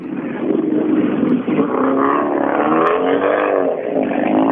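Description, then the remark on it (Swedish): A rally car engine roars and revs steadily for several seconds as it drives past in darkness, its pitch rising and shifting, loud and continuous with no talking. “Det är, lite, eh, det är andra gången jag kör i mörker med en rastbil.”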